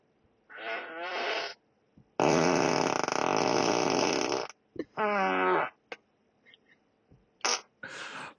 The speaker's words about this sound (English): Right, let's play it. My car can beep and fart this week.